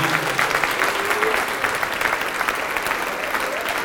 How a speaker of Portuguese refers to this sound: E vamos aplaudir ao nome do Senhor.